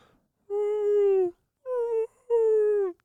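A muffled yell from another room comes as three drawn-out, high-pitched wailing cries, the first the longest, each sliding slightly downward in pitch, with no talking around them.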